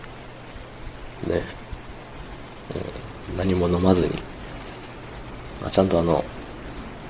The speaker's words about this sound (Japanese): 後ろで扇風機もブワーっと、うなっております。